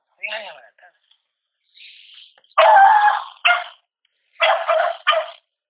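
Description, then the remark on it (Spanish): A dog barks loudly in a handful of sharp, uneven bursts, with a couple of brief, softer sounds before the barking starts. “¡Oye, tu perro!”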